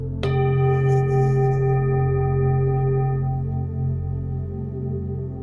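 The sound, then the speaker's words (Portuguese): A meditation bell is struck once during a guided breathing meditation and rings on with a rich, shimmering tone that slowly fades, its layered overtones hanging over a steady low hum. “Então foque, continue respirando e sinta o som do sino.”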